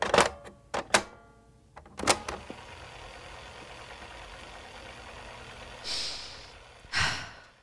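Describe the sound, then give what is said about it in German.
Several heavy breaths puff in and out with pauses between them, the last breaths before setting off down a large ski jump, ending in a couple of long, deep exhales, with no talking. “Das war äh, der letzte Schnaufen, bevor es losgeht.”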